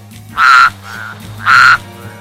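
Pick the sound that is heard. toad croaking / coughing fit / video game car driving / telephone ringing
toad croaking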